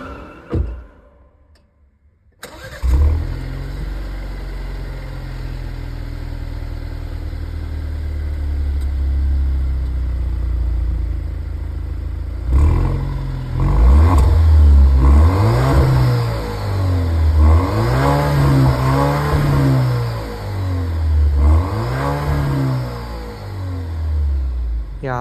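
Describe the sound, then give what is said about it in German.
An Italian Alfa Romeo Giulia car engine starts up and idles steadily, then revs repeatedly in rising and falling surges, its pitch sweeping up and down several times, loud and sounding somewhat thin and strained. “Genau, jetzt kommt direkt die nächste automobile Legende. Ähm, wir horchen mal in den Sound rein, würde ich sagen.”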